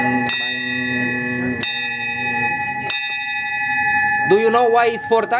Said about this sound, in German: Interessanterweise findet man auf dieser hochtechnisierten Brücke aber auch sehr traditionelle Dinge, wie eine große Schiffsglocke.